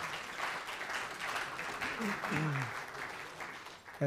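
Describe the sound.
A crowd claps steadily for about four seconds to welcome a first-time visitor, a dense, even patter of many hands, with a few voices calling out beneath the applause before it cuts off.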